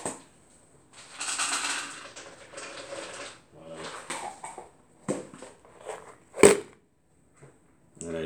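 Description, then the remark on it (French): A cat eating, with irregular dry crunching and crackly chewing bursts, moderately loud, broken by short pauses and one sharp, louder click partway through. “Vous l'entendez Ouais, c'est lui. Il mange.”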